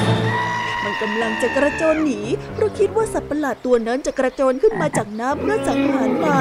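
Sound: frogs croaking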